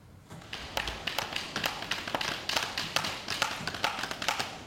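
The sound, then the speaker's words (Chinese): Repeated sharp wooden taps and knocks in an uneven, busy rhythm from people building wooden bat houses in a DIY activity at the Golden Bat Museum, fairly loud throughout with no voices. “咱等下现场嘛会使看到蝙蝠屋先做三款，我们来听一下蝙蝠屋的声音。”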